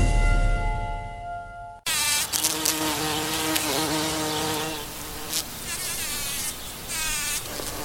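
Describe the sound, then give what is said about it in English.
A bumblebee buzzes loudly, its steady drone wavering in pitch as it moves about, continuous for several seconds with no voices. “Pollinators are very important. One of every three bites of food that you eat was pollinated, and most of that has been done by bees.”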